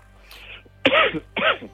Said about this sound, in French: Ouais ouais non, j'ai une petite toux depuis hier mais je je n'ai pas le Covid.